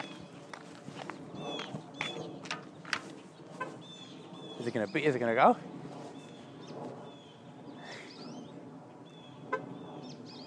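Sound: loud bird calling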